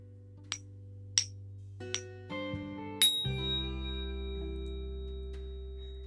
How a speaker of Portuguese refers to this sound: Você precisa de um tambor e de uma baqueta. Eu não tenho tambor, mas eu tenho um sininho.